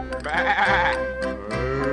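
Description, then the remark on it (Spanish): A sheep bleats twice, a long wavering baa followed by a shorter one, loud, with a faint steady musical backing underneath. “bebe, bebe, dice el borreguito,”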